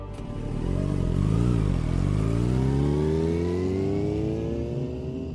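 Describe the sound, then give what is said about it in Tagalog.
A motorcycle engine revs up, dips briefly, then climbs steadily in pitch as the rider gets on and drives off, accelerating, with no voices present. “Pagkatapos ay sumakay na ako sa motor at nagmaneho.”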